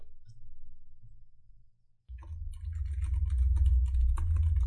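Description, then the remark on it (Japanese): A low hum for about two seconds, then rapid, continuous typing on a Razer computer keyboard begins, a dense stream of clicking keystrokes that carries on to the end, with no talking. “お、それはレーザーのキーボードだけんですか、はい、今回はレーザーのキーボードです。”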